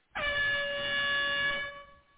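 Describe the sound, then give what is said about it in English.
A single loud air horn blast sounds alone, a sustained, brassy tone holding steady for about a second and a half before cutting off, leaving a brief tail. “Let me hit the air horn on the show here.”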